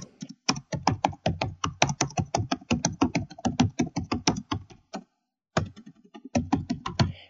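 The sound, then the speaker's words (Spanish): Fast, steady mass keyboard typing coming from offices, with a dense clatter of keystrokes. It breaks off briefly after about five seconds, then resumes. Nobody speaks. “el tecleo masivo que proviene de las oficinas.”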